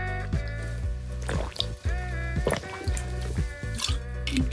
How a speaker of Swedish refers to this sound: Jag måste bara dricka vatten.